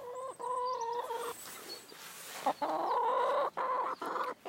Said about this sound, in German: Sie nimmt, es, glaube ich, Wunder, was ein Handy ist. Sie hat das nämlich noch nie gesehen. Wir haben noch nie das Handy mit zu den Hühnern rausgenommen.